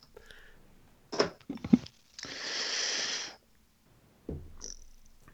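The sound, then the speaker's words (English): A yawn: a few short breathy catches, then a long airy exhale of about a second, ending with a softer breathy sound. No talking. “Sorry. I was yawning.”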